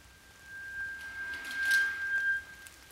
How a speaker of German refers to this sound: Die Regenzeit beginnt.